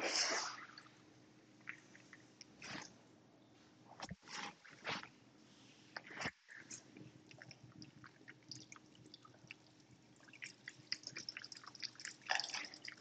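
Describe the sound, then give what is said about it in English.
Hands being washed under running water: a steady hiss with wet splashes, squelchy rubbing and irregular drips, fairly soft, with no talking. “I'm washing my hands because I'm not dirty.”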